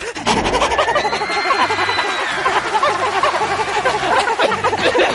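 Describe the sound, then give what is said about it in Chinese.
A group of voices imitate a dog's panting, a loud, rapid, breathy huffing that overlaps into a dense rhythmic chorus lasting the whole stretch. “我们要学狗的表情，不能一脸严肃，要萌，要可爱，呃两眼放光，舌头伸长，配合气息，嘴角上扬，跟我一起，三二一，喘。”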